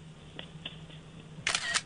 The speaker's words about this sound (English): You know what? That's the sound of a screenshot.